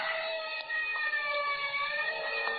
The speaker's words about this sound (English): And somewhere in the distance, I heard a siren.